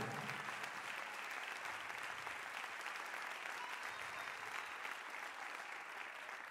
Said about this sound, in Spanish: Si lo creen, denle el mejor aplauso al Señor en esta hora entonces.